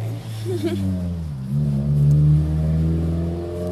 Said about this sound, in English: Fucking car. Shut the fuck up.